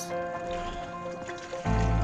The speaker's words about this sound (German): Studien haben gezeigt, dass Zooplankton wie diese Ruderfußkrebse Schall wahrnimmt, also sozusagen hören kann. In diesem Kasten spielt die Forscherin dem Zooplankton Bootslärm vor.